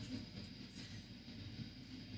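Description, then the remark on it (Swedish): A steady, low train-like rumble from a loudspeaker someone is running in a light well below a studio fills the whole stretch, with faint rhythmic clatter and a soft high hiss on top, sounding somewhat muffled. “Har du börjat åka tåg ner i källaren?”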